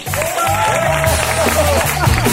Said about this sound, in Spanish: Un aplauso para Jesús Mariñas.